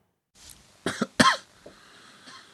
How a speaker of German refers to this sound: Da, hu da hustet schon jemand.